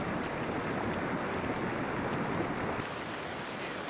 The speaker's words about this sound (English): The particles of ice wash down the stream with the liquid water in a slurry, a slushy, slurpy, goopy mass that uh, in many cases flows like lava.